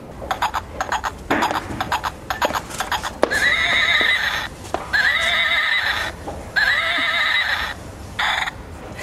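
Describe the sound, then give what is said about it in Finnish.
A toy rocking horse makes rapid clip-clop galloping sounds, then whinnies three times in a row. The sounds are fairly loud, with no talking. “Tämän päivän keinuhevoset, ne laukkaa ja Joo. hirnuukin.”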